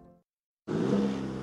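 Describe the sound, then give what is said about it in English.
After a brief low rumble and a moment of silence, the 2.7-liter high-output turbo engine of a 2023 Chevy Silverado pickup truck bursts into a loud revving roar that holds steady to the end. “That's the sound of the 2023 Chevy Silverado's 2.7-liter high-output turbo engine, delivering 430 pounds per foot of torque with no compromised durability.”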